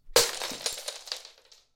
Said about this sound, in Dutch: Ze stopte er één in haar mond, legde de borden in de gootsteen, pakte de glazen schaal tiramisu met beide handen vast, zei: Wil jij er wat port? en gooide de schaal met een klap kapot.